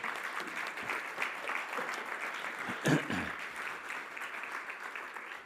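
An audience claps steadily, a dense wash of many hands at an even, moderate level, with one sharper burst partway through before the applause continues unbroken to the end.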